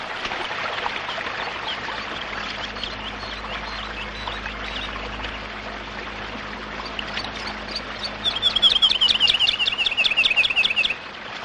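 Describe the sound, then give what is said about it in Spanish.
A river flows through a grove of tall trees, sunlight filtering through the leaves, in a steady, continuous rush of water throughout, while near the end a bird sings a quick, repeated trill above the noise of the current. “La luz del sol se cuela entre las hojas de los altos árboles que forman el bosquecillo por el que discurre el río.”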